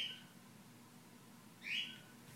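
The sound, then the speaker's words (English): Two short, high bird chirps, one at the start and another a moment later, sounding faint over a low steady hum, with no talking. “Somebody's tweeting.”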